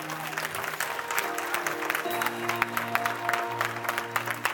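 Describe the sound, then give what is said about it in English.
An audience claps hands steadily during a church worship service, many overlapping claps forming a dense wash of applause, with sustained musical tones, like an organ or keyboard, playing underneath throughout. “Come on, someone give me a hand clap.”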